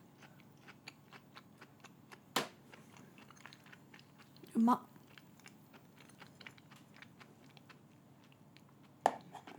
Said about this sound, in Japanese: ちょっと咀嚼音がちっちゃくてあんま拾えてないと思いますけど音。